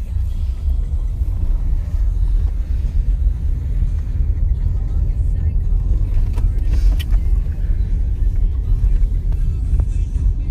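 A car drives along steadily at night, its deep road and engine rumble filling the cabin with a constant, loud low drone and a few faint clicks and rattles over it.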